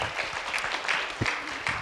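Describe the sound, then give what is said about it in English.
An audience at a service applauds steadily for the people who came up to the microphone, a dense wash of many hands clapping at a moderate level with no voices standing out. “Can we give a round of applause to everybody who”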